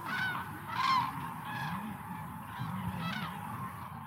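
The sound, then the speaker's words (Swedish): Common cranes give loud, bugling trumpet calls, several in a row from more than one bird, over a steady low murmur of background flock noise outdoors, at the bird-rich lake Hornborgasjön in Västergötland, Sweden, where the cranes stop over. “Och ljudet av de här tranorna det är fångat vid den fågelrika Hornborgasjön i Västergötland där de stannar till och utför sin trandans.”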